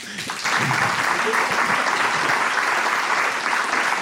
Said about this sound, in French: Alors, on, tient à remercier euh, euh, nos trois intervenants de ce soir qui ont fait preuve d'une grande générosité avec des expériences très différentes, mais très authentiques hein, en soi. Alors, une bonne main d'applaudissements.